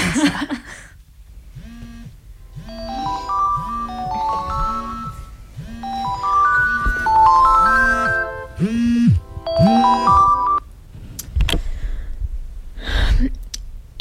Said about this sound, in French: Il est 4 heures du matin. mon réveil vient de sonner.